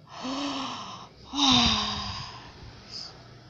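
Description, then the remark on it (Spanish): A voice imitates a bear's big yawn: two drawn-out, breathy groaning exhales, the second louder and rougher, trailing off into a faint airy sigh. “Un día, mientras todos limpiaban el bosque, aparece bostezando el oso.”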